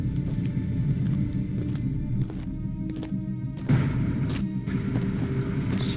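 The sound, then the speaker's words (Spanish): Sea waves rumble steadily, a low continuous wash of surf that swells slightly partway through, with no voices present. “Os llega el sonido del mar.”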